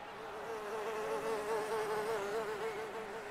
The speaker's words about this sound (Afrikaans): Naaldekoker, muskiet en by klap hulle vlerke terwyl hulle stry oor wie die hoogste kan vlieg.